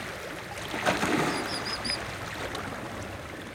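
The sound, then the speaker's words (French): Calm sea water gently lapping and washing against a compact band of rocks, a soft steady murmur, with a few brief high bird chirps in the middle. “la mer très calme remonte et bute sur une frise de rochers euh, compacte.”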